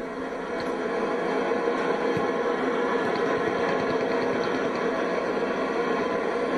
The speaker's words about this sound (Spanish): Tenemos otra vez. Ya llegó el audio de la estática.